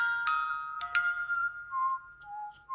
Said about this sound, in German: Der heimliche Star der Outtakes. Das Glockenspiel. Oh, das war ein tiefer Ton.